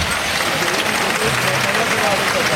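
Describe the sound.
A bullring crowd gives a sustained ovation to the bull from María Guiomar as Castilian mules drag it out, dense steady applause filling the whole clip with a broad crackling roar and a faint murmur of voices mixed in.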